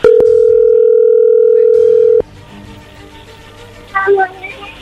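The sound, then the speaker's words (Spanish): A loud, steady telephone tone of a call going through holds one pitch for about two seconds, then cuts off abruptly, followed by low background murmur and a brief burst of higher chirpy sounds. “A ver, ya entró ahí la llamada, no hagan ruido, por favor.”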